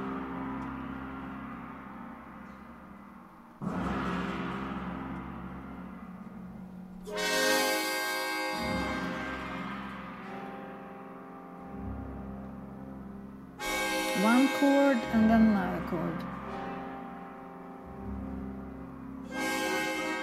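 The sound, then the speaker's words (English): An orchestra, using no bells, sounds deep, ringing chords that mimic tolling bells in an opera's coronation scene: several heavy struck attacks, each blooming and slowly fading over a sustained low drone, with no talking. “you also had to find the orchestral sound that would sound like a bell without being, yeah, including any bells. So this is what you have in the coronation scene.”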